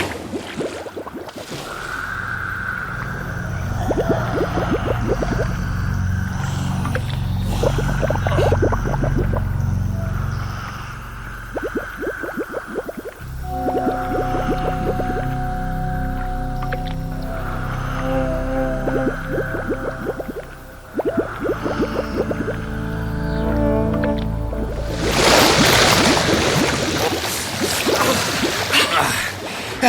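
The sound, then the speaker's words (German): Muffled underwater bubbling and gurgling rise steadily with a low droning hum as divers swim up, ending in a brighter, louder rush of water as they break the surface. No one speaks. “ja, dann lasst uns mal wieder nach oben tauchen.”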